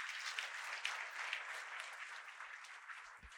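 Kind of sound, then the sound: crowd, audience hand clapping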